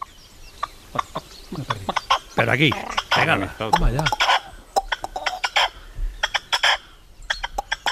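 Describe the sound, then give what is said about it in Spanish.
A partridge calls with a run of sharp, repeated clucks and harsher chattering notes, loud and insistent, while a man speaks briefly over it. “La, paloma se va y viene la perdiz.”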